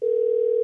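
A steady telephone dial tone, a single constant mid-pitched hum held at even loudness for under a second, then cut off abruptly with a click at the end.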